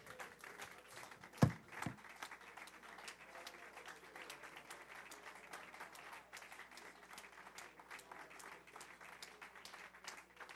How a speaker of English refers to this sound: Come on, clap your hands, lift your voice.